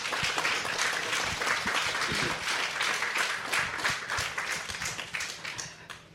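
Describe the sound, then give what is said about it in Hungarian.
An audience applauds a speaker's confession, clapping steadily for about six seconds in a dense wash of many hands at an even level before easing off slightly at the end, with no voices. “Szerintem el is megérdemel egy tapsot ez a vallomás.”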